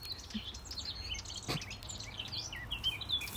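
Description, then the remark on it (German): Many birds chirping and tweeting at once, a busy chorus of short high calls over a soft outdoor hum, with one brief sharp knock midway and no voices. “Glaubst du, unterhalten sich die Vogeln so wie wir?”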